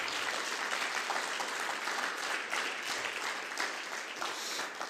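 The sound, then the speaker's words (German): Steady applause from a crowd, a dense crackle of many hands clapping at an even, sustained level for the whole stretch without a pause or any voices rising above it. “Ja, ein Applaus.”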